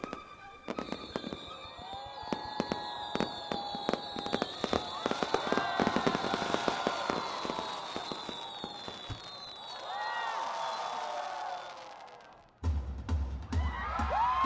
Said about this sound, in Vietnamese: pháo hoa rực rỡ rọi sáng cả một vùng bầu trời đêm và khiến sức nóng của lễ hội dâng đến cao trào.